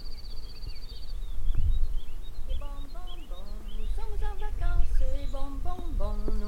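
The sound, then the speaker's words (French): Birds sing outdoors: a thin, high trill at first, then a run of short, repeated chirping phrases over a low, steady outdoor rumble. “On entend les oiseaux aussi.”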